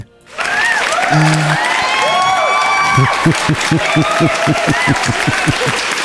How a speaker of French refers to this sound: Le rire qui casse tout, quoi. Non, ouais, c'est ça, parce que je l'ai mis sous acclamé, mais ça fait moins acclamation à cause du rire, tu vois.